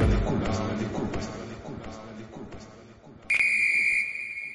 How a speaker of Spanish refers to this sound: Es el pitazo final.